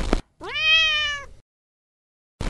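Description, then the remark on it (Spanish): A single loud, drawn-out meow from a female pet cat, rising in pitch then holding steady, clear, lasting about a second between brief bursts of noise and silence. “La verdad es que a nosotros nos dio culillo decir quién iba a quedar presidente y se lo dejamos a mi gata, que rompió su silencio y armó culo de escándalo.”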